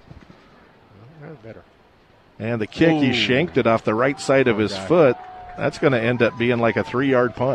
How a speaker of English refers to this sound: That weird vibration noise you hear is the wind going through the aluminum bleachers here.